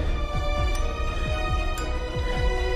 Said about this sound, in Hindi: लगातार तेज दौड़ने के वजह से उसके दिल की धड़कनें तेज होने लगी थी